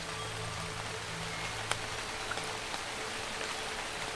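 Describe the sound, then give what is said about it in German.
Steady rain pattering on the large leaves of plants over a broad hiss, with a few sharper drops tapping out now and then against a constant low hum. No voices. “Der Regen prasselt auf die grossen Blätter der Pflanzen im Schlummerland und wäscht alles ab, was sich darauf angesammelt hat.”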